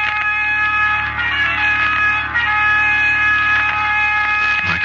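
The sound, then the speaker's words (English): A loud horn blows continuously, its bright, brassy tone holding steady with slight wavering for several seconds, insistent, with no voices present. “And I heard the sound of a horn blowing urgently.”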